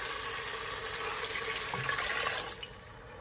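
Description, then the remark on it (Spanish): Two cups of water pour steadily into a cooking pot with a broad, hissing splash, loud, then taper off near the end as the stream stops. No one speaks. “le vamos a poner cuatro tazas de agua. Aquí van dos.”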